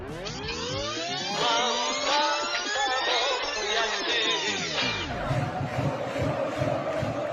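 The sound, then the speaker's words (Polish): A large stadium crowd roars, with many voices shouting and cheering at once in rising, overlapping calls, then settling into a dense, steady crowd din that stays loud throughout. “No kto by szukał Rysia na stadionie?”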